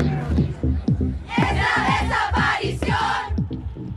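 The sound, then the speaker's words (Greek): A large crowd chants a protest song that began in Chile, with the refrain 'the rapist is you', in unison, voices rising and falling in a steady, forceful, almost football-chant rhythm, loud with a dense wash of many voices. “Ναι, ξεκίνησε στη Χιλή αυτό το τραγούδι, αυτός ο σχεδόν οπαδικός ρυθμός που τα λόγια ακούγονται λίγο άγρια, λίγο άδικα σχεδόν στην αρχή.”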